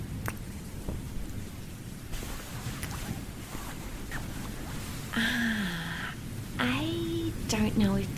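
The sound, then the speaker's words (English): Steady rainfall on a cold, late night hisses throughout with a low, rumbling undertone like thunder, while a few gliding, whistle-like tones rise and fall over it near the end. “And it's late, it's cold, and it's raining.”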